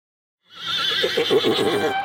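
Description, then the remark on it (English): A horse whinnies loudly, a long quavering neigh with a shaky, descending vibrato that carries on for well over a second after a brief silence. “It's a true story about a horse, a very clever horse named Hans.”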